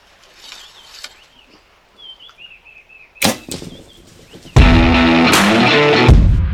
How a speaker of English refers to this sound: Okay, so what we're going to do, we're going to roll the intro music and then we are going to go into a deep dive on our new arrow.